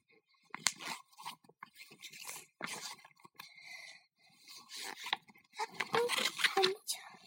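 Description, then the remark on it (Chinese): Rex's tooth, which had hurt for years and was nearly falling out, cracks and snaps off: a burst of irregular, crunchy cracking and tearing noises, some sharp and some grinding, rising louder toward the end, with muffled vocal sounds mixed in. “嘎嘣一声，雷克斯的牙齿掉下来了。”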